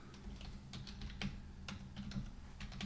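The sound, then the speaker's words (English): Rapid, uneven clicking of keys on a computer keyboard, steady, with a low background hum and no voices. “They, I'm I, typing I, it in right now.”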